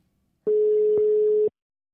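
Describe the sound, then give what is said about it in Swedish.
A single telephone ringback tone sounds while a call is being placed: one steady, fairly loud electronic beep lasting about a second, heard alone with no talking. “Ja, ja men vi ringer henne.”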